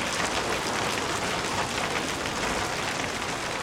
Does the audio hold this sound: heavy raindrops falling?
yes